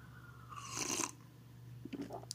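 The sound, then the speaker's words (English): A brief sip of water with apple cider vinegar, a short wet slurp followed by a few soft swallowing clicks over a faint steady hum, with no one talking. “ah, excuse me, I had have a little sip of my water with apple cider vinegar, a little hot toddy.”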